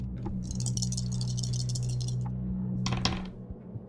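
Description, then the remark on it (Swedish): Three dice rattle and clatter across a hard surface in a long run of quick clicks, then a short, sharper burst as they settle, over a steady low hum, with no talking. The dice are rolled for a close-combat roll in a role-playing game. “Så jag blåser tre ödespoäng och då får jag tre tärningar.”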